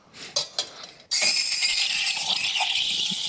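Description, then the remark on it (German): After a few faint clicks and rustles, an espresso machine's steam wand bursts on at full boost, a loud, steady high-pitched hiss and gurgle of frothing that holds strongly to the end. “Also die Boost-Funktion funktioniert super. Ja. Du hast jetzt richtig Dampf.”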